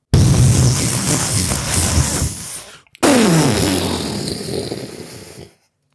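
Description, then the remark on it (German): A person imitates an explosion with their voice, a rough, noisy, loud blast, cuts off briefly, then follows with a second sputtering burst that trails into choking, gagging sounds as they choke on their own saliva. “ist beim Versuch, eine Explosion zu machen, erstickt.”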